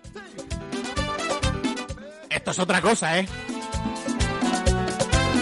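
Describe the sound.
An upbeat merengue song kicks in with a bright, steady dance rhythm and dense instrumentation, while a voice speaks briefly over the opening bars.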